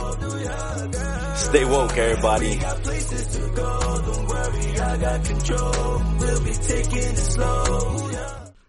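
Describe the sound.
A rap album plays steadily as a hip-hop track with a heavy, pulsing bassline and a dense beat, while a man briefly speaks over the music near the start.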